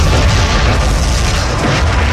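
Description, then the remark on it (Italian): A loud explosion effect roars continuously, a deep booming rumble with dense crackling noise that stays powerful throughout without fading, and no voices. “Vede il super samurai errante cieco utilizzare il colpo proibito dell'esplosione di un milione di soli.”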